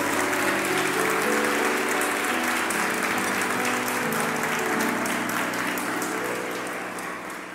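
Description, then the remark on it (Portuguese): An audience claps for the Lord, a dense wash of many hands that holds for several seconds before tapering off slightly at the end, with faint voices murmuring underneath. “É, pode aplaudir o Senhor.”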